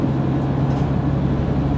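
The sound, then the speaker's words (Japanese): A single-car Ise Railway diesel railcar running as a local train, its engine rumbling in a steady, low drone with a constant hum, holding an even loudness throughout and no voices over it. “えー、伊勢鉄道ですね、えー、かわいいなディーゼルカーが1両で普通列車です”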